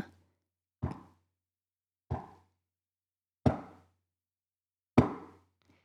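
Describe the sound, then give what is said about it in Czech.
Four slow, evenly spaced clacking footsteps, meant as the character Moody arriving in a nightshirt in a wizard-themed audio play, each a sharp hard knock with a short ringing decay and a dull low thud underneath, with silence between steps. “To mělo být klapání, jakože přichází můdy, který má na sobě taky noční košily to je nějaká asi kouzelnická móda.”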